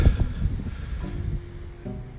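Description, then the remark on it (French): Heavy stormy wind buffets the microphone in low, rumbling gusts, loud at first and easing slightly, with a faint steady hum running through it. “Bon, j'espère vraiment que vous aurez pas de vent.”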